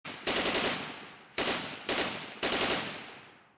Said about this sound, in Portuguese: Os soviéticos chegaram e invadiram Berlim, na capital da Alemanha, antes dos americanos, e a artilharia abriu fogo contra os prédios do governo.